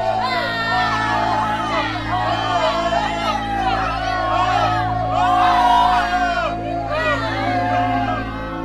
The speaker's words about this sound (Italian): Il 27 aprile Adolfo Meciani va dai carabinieri per essere interrogato. Fuori dalla caserma c'è una folla che gli grida contro, grida maiale.